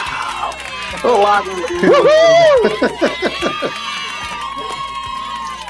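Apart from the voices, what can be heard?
crowd cheering sound effect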